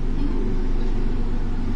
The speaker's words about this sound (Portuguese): Agora vocês vão ver o helicóptero. Helicóptero.